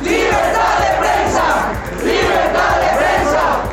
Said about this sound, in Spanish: Protestan periodistas en la Cámara de Diputados por agresiones al gremio. Libertad de expresión y justicia eran los gritos de los comunicadores. Justicia.